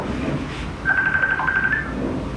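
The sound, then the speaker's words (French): A phone call being placed: a single steady electronic tone rings out for about a second over a low, murky background rumble, then cuts off. “Et on va écouter un extrait du film où il est en train de l'appeler.”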